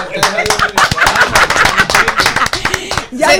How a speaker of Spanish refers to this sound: Un aplauso